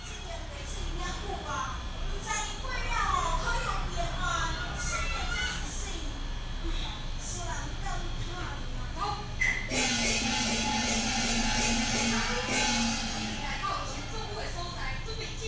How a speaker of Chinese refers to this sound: 现在你听到这个啊，是那个从房子里面，就是从呃住家里面往外录的声音哦，录远处在庙庙口在演歌仔戏的那个远远的声音。然后你知道，如果你在家里面，然后听到远处这种演歌仔戏的声音，我自己我自己觉得其实很有气氛呢。